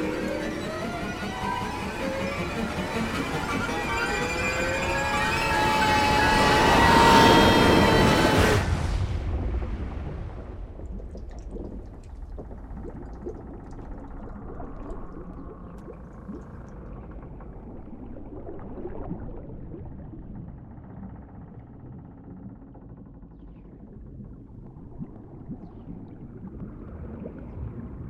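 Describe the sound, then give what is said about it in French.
A loud, surging roar of a huge sea wave crashing over a small boat builds for several seconds, then cuts off abruptly into a muffled, low underwater rumble as the boat overturns and plunges the rider toward the bottom of the sea, continuing faintly to the end. “Une vague énorme renverse ma barque et me plonge au fond de la mer.”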